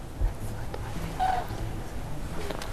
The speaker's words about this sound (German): Oh, ich höre einen Kranich. Hört mal. Echt? Ganzer Schwarm.